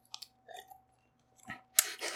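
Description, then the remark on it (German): Wet mouth sounds of someone eating: a few soft smacks and chews, then a louder burst of slurping and crunchy chewing near the end, with no talking. “Schlürfe. Ich höre ja gerade das, was die Zuhörerinnen hören.”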